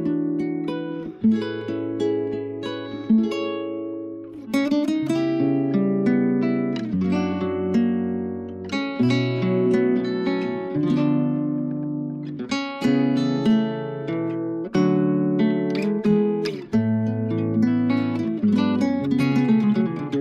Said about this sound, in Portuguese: Nós vamos aproveitar então, já que o pastor gosta de ouvir boa música e eu sei que ele gosta dessa, vamos ouvir então